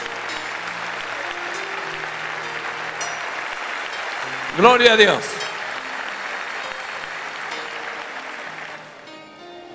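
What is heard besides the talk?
loud audience applause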